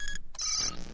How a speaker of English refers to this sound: Was that a fart sound? No. it was the sound of a card getting accepted.